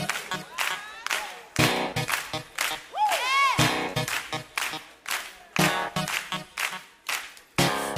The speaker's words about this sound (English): Clap your hands like this.